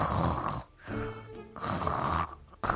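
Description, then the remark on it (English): Two long, rasping snores with a short pause between them, each a rough, rumbling inhale that swells and fades, with no talking: Mama monkey settling down on a blanket for a snooze. “Mama spread out a blanket and settles down for a snooze.”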